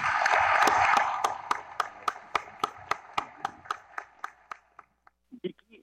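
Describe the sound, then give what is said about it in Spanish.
An audience applauds in memory of the University Council members of 50 years ago, a dense burst of clapping that settles into steady, evenly spaced rhythmic claps. These gradually grow fainter, and a brief voice is heard at the end. “Les pediré un aplauso en memoria de ellos.”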